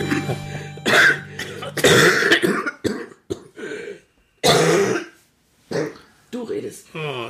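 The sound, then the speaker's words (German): Several harsh coughs come in irregular bursts, one mixed with throat clearing, separated by short pauses and brief bits of speech. “Du musst sehen, dass du die Lücken triffst zwischen Husten hm.”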